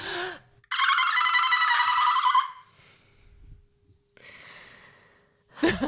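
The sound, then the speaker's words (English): A person makes a loud, high-pitched squealing voice imitating a bottlenose dolphin, one long wavering squeak followed by a shorter, softer chirping burst, with breathy sounds around them. “You can make your dolphin noise if you ah, want.”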